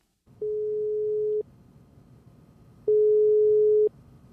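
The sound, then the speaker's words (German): A telephone ringback tone sounds twice, each a steady one-second electronic beep separated by a pause, clear and fairly loud over a faint low hum while the call waits to connect. “Am Telefon habe ich sie erreicht.”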